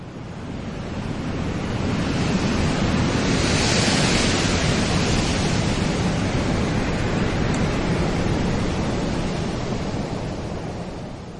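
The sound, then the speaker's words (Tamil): Heavy ocean surf roars continuously onto the shore, a dense rushing wash that swells louder early on and stays strong, with a windy hiss layered over it and no voices. “கடல் அலைகள் திமிங்கலங்களாக வாயை பிளந்து கரையோரத்தில் நின்ற குடிசைகளை விழுங்கின”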